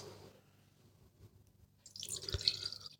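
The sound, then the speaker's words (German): Mallorcan white wine (Mathia Butler) is poured into a glass in a studio, a short splashing, gurgling trickle that starts after a quiet moment and builds briefly, with no one speaking. “Wir trinken heute aus Gründen mallorquinische Weine. Jetzt erstmal den Mathia Butler Weißwein. Ah, ja. Ein wundervolles Geräusch.”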